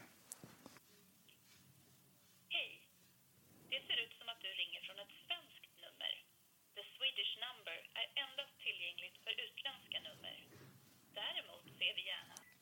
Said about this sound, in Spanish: Ah, bueno, vamos a hacer otro intento con la llamada entonces.